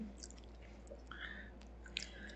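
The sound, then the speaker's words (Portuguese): Close, wet mouth noises like swallowing or sipping a drink, soft smacks and gulps scattered over a couple of seconds with a low steady hum beneath and no talking. “Bah, chegou, aí, chegou a engolir o um copo.”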